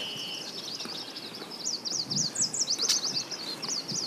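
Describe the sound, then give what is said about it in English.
A continuous wash of high, overlapping birdsong with quick zigzagging trills and chirps, heard at first light from a canoe paddling downstream on the Missisquoi River in Vermont, layered over soft ambient rustle and low background noise, with no single call standing out. “And almost at once, we're in a different world it's not like there's a bird song here and a bird song there. It's just this kind of wash of sound.”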